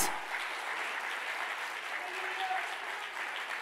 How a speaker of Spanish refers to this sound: ¿Cuántos están? ¿Cuántos le dan un aplauso al Señor? Vamos.